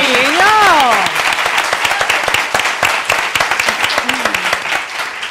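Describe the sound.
A crowd applauds with dense, continuous clapping throughout, while a voice briefly rises over it in a high, wavering cheer or shout at the start.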